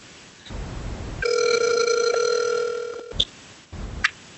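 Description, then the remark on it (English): A phone's ringing tone plays once as someone calls a man, a steady, buzzy electronic tone lasting about two seconds, heard through a handset, followed by a couple of soft clicks and line noise. “I'll let me call him real quick.”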